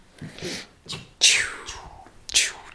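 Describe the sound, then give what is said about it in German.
A voice imitates striking a match with breathy hisses: two short scratchy puffs, then a longer flaring whoosh that fades, and another sharp hiss at the end. “Nee, aber guck mal, hier liegt Streichhölzer.”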